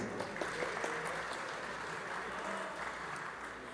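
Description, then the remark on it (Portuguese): Steady applause from a crowd for a musician from Rio Grande do Sul: a dense continuous patter of many hands clapping at a fairly even level throughout, with no voices standing out. “Aplausos a ….”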